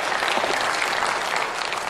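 Sustained applause from ruling-party lawmakers fills the South Korean National Assembly plenary chamber during President Yoon Suk Yeol's address, a steady dense patter of many hands clapping at once with no pauses and no voices.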